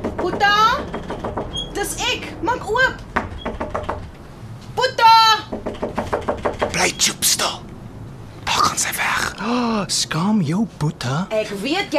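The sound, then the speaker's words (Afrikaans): Repeated knocking on a door by someone who will keep knocking until it is opened, several sharp raps in quick bursts, while people talk over and between the knocks. “en jy ken my, ek sal klop en klop totdat jy oopmaak.”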